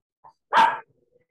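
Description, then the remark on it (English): A female dog lets out one short, sharp bark, loud, with a faint yip just before it and quiet afterward. No one speaks. “She's gonna start barking.”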